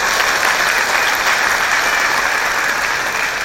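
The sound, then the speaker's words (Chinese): Sustained applause from an audience for the company, a dense, steady wash of many hands clapping at an even loudness for the whole stretch, with no voices standing out. “好，感谢公司哈，给公司一个掌声，谢谢。”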